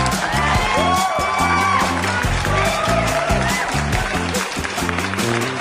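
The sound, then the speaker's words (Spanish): A loud, continuous burst of crowd applause and cheering, with scattered whoops and whistles, layered over steady music with a pulsing low beat throughout. “Aplausos, maldita sea.”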